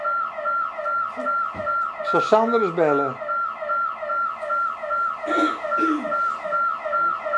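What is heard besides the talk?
building alarm going off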